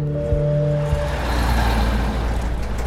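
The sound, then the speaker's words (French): A heavily loaded Peugeot 403 car carrying four men idles with a steady low engine hum, then pulls away toward Le Neubourg as the motor revs and a broad rushing roar builds, fairly loud, with no voices. “les quatre hommes grimpent dans la Peugeot, chargée à bloc.”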